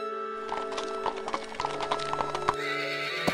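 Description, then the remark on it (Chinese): Hooves of a horse-drawn carriage galloping away clatter in a quick, steady clip-clop rhythm for several seconds at an even loudness, with a horse's whinny sounding among them and no voices. “驰骋而去的马车，许久才打开手里的小布包。”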